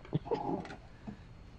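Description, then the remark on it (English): A dog named Lolly, left at home while her owner is on a trip, whimpers in a short, quiet burst: a couple of thin, high whines rising and fading within a second or so, with no talking. “but she's not at home because she's on a trip and she left her dog, Lolly.”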